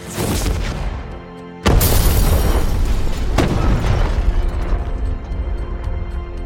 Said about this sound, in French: Un jour, alors qu'il n'a pas encore pris les armes, il sort de sa voiture qui, quelques secondes plus tard, explose et s'envole jusqu'au premier étage de l'immeuble devant lequel elle était garée.